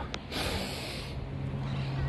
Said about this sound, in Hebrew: נשימה עמוקה.